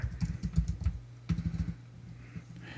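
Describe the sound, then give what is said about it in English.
Quick bursts of computer keyboard typing, clear, with rapid clustered keystrokes, a brief pause, then another flurry before trailing off into quiet, as someone looks something up on Amazon. “Everybody loves to hear typing on a podcast.”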